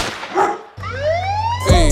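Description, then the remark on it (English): A dog barks once, then a police siren wails upward in a rising sweep over a steady low hum, with another sharp burst of sound right at the end. “Gunshot, dog bark, siren”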